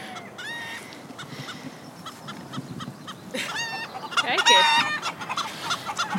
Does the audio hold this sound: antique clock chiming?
no